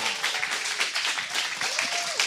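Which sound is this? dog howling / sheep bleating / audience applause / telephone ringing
audience applause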